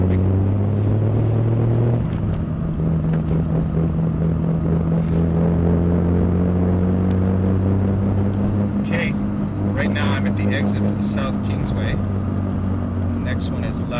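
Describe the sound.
Steady low engine drone and road rumble inside a moving car, with the engine pitch shifting early on, while a person talks over the continuous noise.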